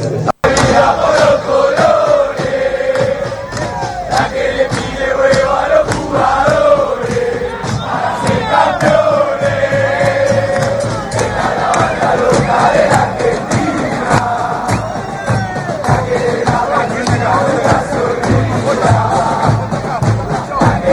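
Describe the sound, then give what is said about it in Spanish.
A large football crowd chants loudly in unison, a dense, sustained wall of voices with rhythmic sung phrases rising and falling continuously for the whole stretch. “con cantito, con ruido, con goles de nuestra selección.”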